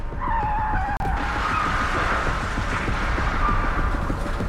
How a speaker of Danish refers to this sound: Med et væk ramler bilen ind i siden på os.